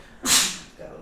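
A single sudden sneeze, a loud breathy, hissing burst that fades out over about half a second, followed by a brief low murmur.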